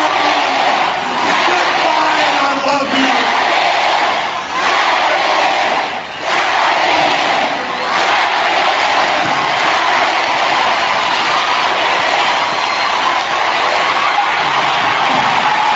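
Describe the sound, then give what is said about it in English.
A huge wrestling arena crowd in Japan roars and shouts nonstop, a loud, dense wall of cheering that barely dips for the whole stretch, with brief swells of individual yells rising out of the din. “Listen to that crowd.”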